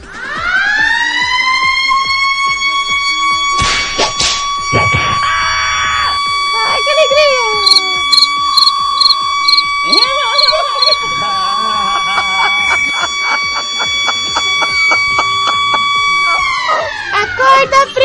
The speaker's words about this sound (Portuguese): E já que a gente tá falando disso, galera, segura, segura a sirene do colégio!